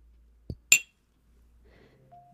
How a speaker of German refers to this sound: vor einiger Zeit eine Tasse geschenkt bekommen. Da werde ich mit meinem Fingernagel kurz gegenschlagen, als kleines das Gesprächs zu Ende Geräusch, ja?